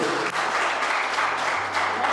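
Steady audience applause for Jesus, a dense wash of many hands clapping at an even loudness for the whole stretch, with no voices standing out.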